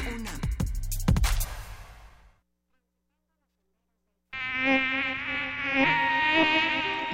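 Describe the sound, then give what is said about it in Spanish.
A whiny mosquito buzz drones steadily, wavering slightly in pitch. It follows a short silence and, before that, a burst of buzzing with a few sharp thuds. “Los mosquitos pican, molestan.”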